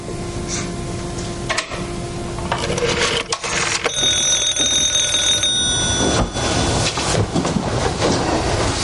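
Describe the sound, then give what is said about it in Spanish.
A telephone rings with a steady, high, bell-like tone that sustains for a couple of seconds over a constant rumbling background noise. No one speaks. The ringing is from a call just dialed, which wakes a woman who then answers. “Una mujer despierta al escuchar la llamada y contesta.”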